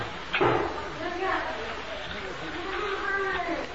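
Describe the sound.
A door shuts once with a short, solid knock near the start, followed by a steady murmur of voices and room noise.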